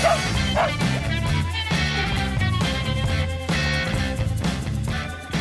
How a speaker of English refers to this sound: the dog behind the man, our executive producer, and everyone's buddy, Butch.